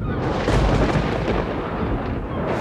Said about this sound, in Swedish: Och det var med en sån otrolig kraft att det var som att det åskade på himlen när det träffade i seglarna.